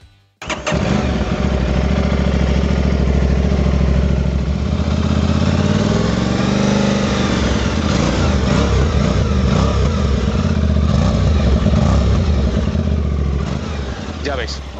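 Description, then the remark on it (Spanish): An Aprilia 660 cc twin-cylinder motorcycle engine, the one also used in the RS and Tuono, fires up and settles into a loud, throbbing idle, then revs once, the pitch rising and falling before it returns to a steady, rumbling idle. “este bicilíndrico, este bicilíndrico, y es que es un caramelo, como se suele decir en el mundo del motor, este motor de, 660 eh, centímetros cúbicos aproximadamente que cubica de Aprilia, que ya lo monta en la RS y en la Tuono”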